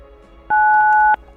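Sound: telephone keypad button tones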